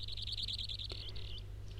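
A broad-billed sandpiper's call: a steady, buzzing high trill running continuously through the short stretch, over a low rumbling background with no talking.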